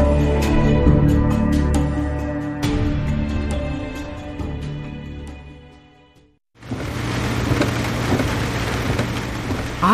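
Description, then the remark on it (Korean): A ringing, musical passage fades to near silence, then heavy rain bursts in loud, a dense steady downpour near Jeju Island filling the last few seconds. “아이고 그 제주도 옆이 무섭게 온다.”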